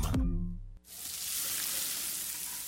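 A short low tonal swoosh gives way to a steady, loud sizzling of a cheeseburger on a grill, a bright crackling hiss that continues to the end with no talking.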